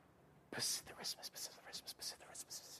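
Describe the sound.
A speaker demonstrates whispering: after a brief silence, a breathy string of airy, hissing syllables with no voiced tone, rising and falling in short bursts for about two seconds.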